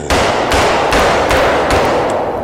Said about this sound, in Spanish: Martillazo.